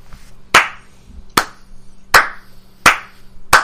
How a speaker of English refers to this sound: Slow clap.